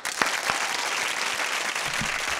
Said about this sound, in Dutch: Hey, dankjewel Applaus. Yes.